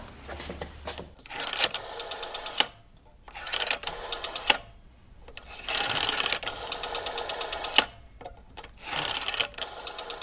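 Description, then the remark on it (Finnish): An old-fashioned telephone being handled, with bursts of rapid mechanical clicking and whirring separated by brief pauses, repeating about five times with no one speaking. “Täällä on tämmöinen vanhanaikainen puhelin. Onkohan tämä ollut käytössä?”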